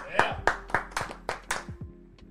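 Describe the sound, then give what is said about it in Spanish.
A short burst of hand clapping welcoming a guest, about seven sharp claps in a quick, steady rhythm, fairly loud before tapering off, with faint voices murmuring underneath. “Un aplauso, un aplauso, Irán, un aplauso.”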